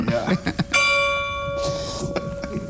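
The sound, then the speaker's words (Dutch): A single deep stroke of a maintained castle tower clock bell striking the hour rings out with a long, shimmering hum that slowly fades, while people chatter quietly before and after the strike. “Eh, dit is de klok, die wordt ook onderhouden.”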